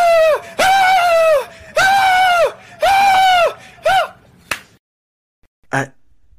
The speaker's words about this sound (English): I had to stop him from screaming.